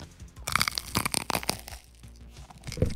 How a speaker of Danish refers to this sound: Skal vi lige høre, om, den, om man kan høre, at, at, at skorpen knæser her?